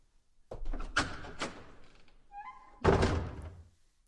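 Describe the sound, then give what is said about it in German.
A heavy door is worked open: a few dull clunks of the latch, a brief creaking hinge, then a loud, booming thud as it swings and settles, with no voices. “Unsere Helden sahen eine weitere Tür, die es zu öffnen galt.”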